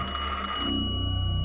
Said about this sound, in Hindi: अमित घूमा तो देखा उसका एंटीक फोन बज रहा था कनेक्शन तो है ही नहीं फिर भी ये बज कैसे रहा था